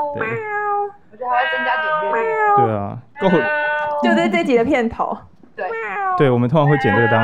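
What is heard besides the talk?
cat meowing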